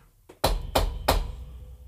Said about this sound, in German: Im Traum von Brian klopft es auf einmal an die Tür.